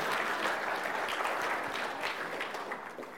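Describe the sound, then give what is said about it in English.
A church audience at a Mother's Day service claps together in steady, dense applause that holds at a fairly even loudness for several seconds before tapering slightly at the end, with no voices standing out. “Yeah, clap, of course.”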